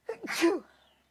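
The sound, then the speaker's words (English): A single loud sneeze with a quick breathy intake and a sharp, hissing burst that fades out within a second, no talking around it. “Bless you.”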